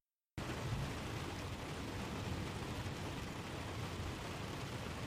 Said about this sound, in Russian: Антиквар еще что-то лепетал ему вслед, но Джек уже вышел под моросящий дождь и услышал далекие раскаты грома.